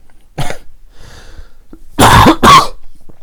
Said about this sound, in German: Übrigens, ich glaube, ich habe wirklich chronisches Husten. Wir haben uns da letztes Mal drüber lustig gemacht, so ein bisschen. Aber ich glaube, das ist wirklich Hustenkrebs.